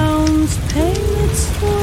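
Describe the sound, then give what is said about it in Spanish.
Steady rain hisses evenly throughout, with a few sustained gliding tones sounding over the downpour. No one speaks. “así que ti mi tira esta lluvia que me sirve.”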